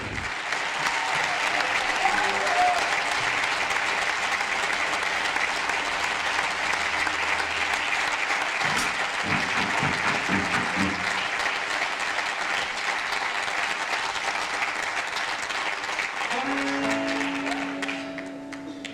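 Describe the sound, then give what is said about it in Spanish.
A large audience at a band's concert applauds a guest performer steadily for nearly twenty seconds, a dense, sustained wash of clapping that fades slightly at the very end. “Así que un gran aplauso para nuestro amigo”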